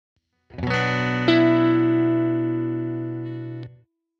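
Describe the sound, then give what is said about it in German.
An electric guitar strums a B minor chord through a distorted, chorus-like effect, with a second accent just after it starts, then rings loudly for about three seconds before being cut off. No talking. “Wie erwähnt mit dem B-Moll-Akkord.”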